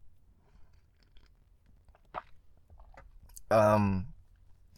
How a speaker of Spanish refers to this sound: Eh, pausa para trago de café. Ahora sí traigo café.